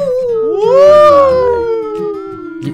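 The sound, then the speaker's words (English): Voices imitate ghostly howling: long, wavering "oooo" tones swoop upward, then slowly sink in pitch, with overlapping voices sustained loudly for nearly three seconds. “Ghost noises for the next one, dude.”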